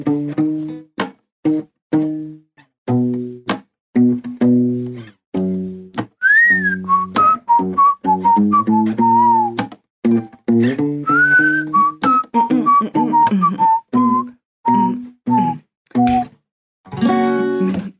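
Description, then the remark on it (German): A song intro plays loudly, with punchy rhythmic chords starting things off before a bright whistled melody glides in over the beat and carries the tune through the rest. “Spielst du nochmal das Intro an?”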